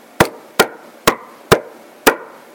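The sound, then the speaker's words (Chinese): Five firm knocks on a door, sharp wooden raps spaced about half a second apart with a slightly uneven rhythm, each ringing briefly before the next. No voices. “一阵敲门声响起。”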